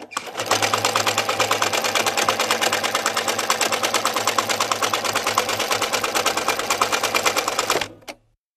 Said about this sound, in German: Jetzt kommen Nähmaschinen zwei. Nähmaschinen?